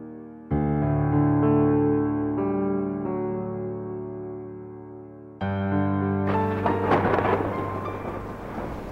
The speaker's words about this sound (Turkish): Maşallah iyi bastırdı. Bu oda ne? Yerde seller akıyor fakat benim üstüm kupkuru. Yağmur bana değmiyor.